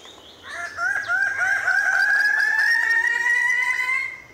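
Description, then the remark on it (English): Loud, raucous crowing calls of male Raggiana birds of paradise ring out in lowland forest on the island of New Guinea in early morning, drawn-out and slightly rising, overlapping for several seconds with no voices. “The lowland forest erupts with the crowing calls of male Raggiana birds of paradise.”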